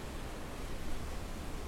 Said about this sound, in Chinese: 啊，我想大家都听到了背景的这个海浪的声音。我现在就在游轮上我的房间的阳台上面录制这期节目。啊，看着远方的一望无际的大海，感觉真的是不一样。